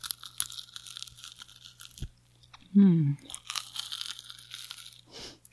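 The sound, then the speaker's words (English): Crisp crunching of someone biting into and chewing a Rice Krispie treat, with bursts of crackly noise before and after a brief hummed murmur. “I'm you're gonna, gonna, you're gonna eat a Rice Krispie treat on.”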